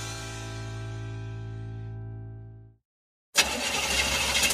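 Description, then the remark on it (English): A car engine hums steadily, then winds down and cuts out into silence, followed by a loud, sudden burst of harsh hissing noise, like a vehicle breaking down. “A car breakdown could cost you thousands to repair,”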